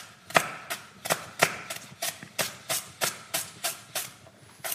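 Steady knife chopping on a board, about fourteen sharp, crisp strokes in an even rhythm over several seconds, as lemongrass is finely cut. Moderately loud, with no talking.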